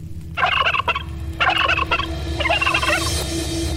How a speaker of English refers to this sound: The warbling from before was coming from him.